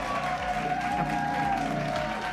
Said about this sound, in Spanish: ¿Qué les vamos a dar? Ahí les van sus aplausos por estar aquí.